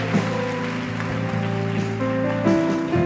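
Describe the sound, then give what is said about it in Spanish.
An audience applauds steadily for a few seconds, a dense, even patter of many hands clapping, with sustained keyboard chords playing underneath and no voices. “Dele un aplauso grande, póngase en pie.”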